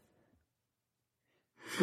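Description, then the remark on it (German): After a near-silent stretch with a faint breath at the start, a single loud sneeze bursts out abruptly at the very end. “Muss man Niesen eigentlich rausschneiden?”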